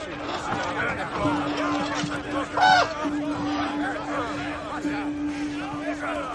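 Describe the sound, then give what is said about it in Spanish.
A single harsh, throaty croak from a caged raven carried by a maester sounds once, mid-loud, against a busy backdrop of crowd chatter and a steady low hum. “Sansa repara en el maestre de Liana Mormont que lleva un cuervo enjaulado.”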